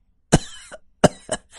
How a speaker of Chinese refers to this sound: …居然在笑呢。他一边笑一边咳嗽。